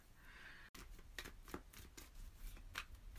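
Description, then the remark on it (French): A Hopes and Fears card deck being shuffled before cards are drawn: a run of soft, papery riffles and flicks coming in quick irregular bursts, fairly quiet, with no one talking. “Je vais sortir une carte pour... C'est les Hopes and Fears en anglais.”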